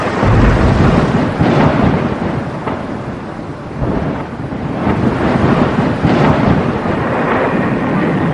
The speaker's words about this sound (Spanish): Y después el Señor envió una plaga de granizo, acompañada de lluvia y de rayos sobre la tierra de Egipto.